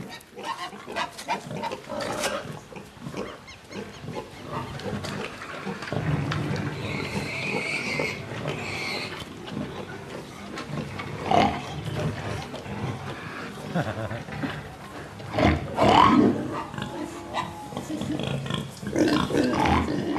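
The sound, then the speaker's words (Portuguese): Pigs grunt and oink in a busy, continuous stream, with snorts and squeals rising over a low rumbling background, some calls loud, in a film scene where an actor plays opposite the pigs. “Agora, como é que um diretor convence um ator a contracenar com diálogos com porcos?”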